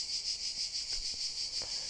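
Cicadas drone in a steady, high-pitched buzz that swells and eases in a gentle, regular pulse throughout, on a hot day of 38 degrees, with a few faint soft thuds underneath and no voices.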